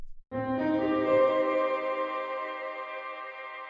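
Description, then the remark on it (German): A loud, bright tonal chord with many ringing overtones, processed through the ujam UFX Reverb plugin with damping set to zero, starts abruptly, then rings out in a long, shimmering reverb tail that keeps its high end as it slowly fades. No one speaks. “416 UFX Reverb - ujam (Test)”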